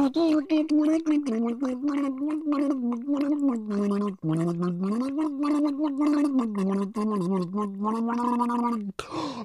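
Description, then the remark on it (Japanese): A voice sings a bouncy, rhythmic phrase of the Wanman Ondo tune while gargling water, the tune bubbling and warbling through constant gurgles for about nine seconds, steady and fairly loud, ending abruptly. “今水につけてちょっとリアルな感じで再現してみましたけど、えー、唐突でびっくりしたと思いますけれども”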